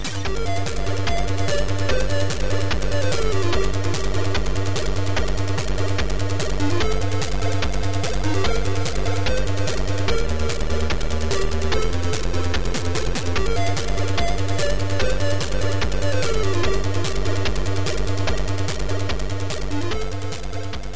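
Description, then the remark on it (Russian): Bright, buzzy chiptune music made on a ZX Spectrum computer plays steadily throughout, with a pulsing square-wave bassline, rapid arpeggiated beeps and a crisp noise-channel beat keeping a driving rhythm. No one speaks. “Второй выпуск подкаста о чиповой музыке на zx-spectrum”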